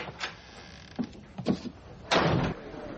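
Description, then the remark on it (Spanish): A door is handled with a few soft clicks and knocks, then swings with a louder, broader thud-and-rustle lasting about half a second; no one speaks. “Se dirige a la puerta.”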